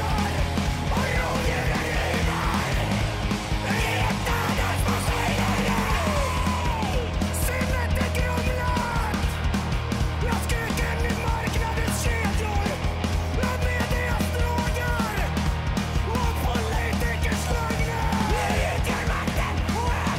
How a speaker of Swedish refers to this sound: Undrar vem det är som skriker där, det ljusa skriket.